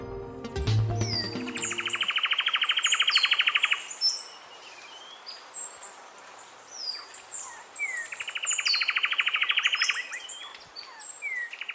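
A sepia-brown wren, a bird about 17 cm long with dark brown plumage, a whitish throat and dark-barred flight and tail feathers, sings two long, rapid rattling trills several seconds apart, mixed with bright whistled chirps, fairly loud over a faint natural background.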